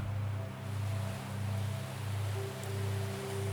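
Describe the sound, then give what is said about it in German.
Gentle ocean waves wash steadily beneath a soft, humming ambient drone, swelling and easing in a slow, even rhythm with no voices present. “Die sanften Klänge und die Wellen führen dich noch tiefer.”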